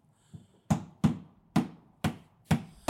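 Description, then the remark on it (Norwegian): Knocking on the bottom of a coffin: a faint tap, then five sharp, hollow wooden knocks at a steady, slightly uneven pace, each ringing briefly. No one speaks. “Ja, nå banker Det er bare å banke på sånn, ja. På kistebunnen.”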